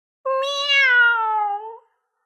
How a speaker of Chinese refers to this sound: 威尔伯喊道：“喵！”